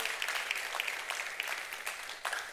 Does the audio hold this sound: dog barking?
no